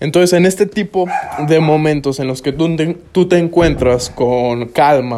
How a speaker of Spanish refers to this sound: Entonces, en este tipo de momentos, perdón si se escucha mi perro de fondo, voy a cerrar la puerta.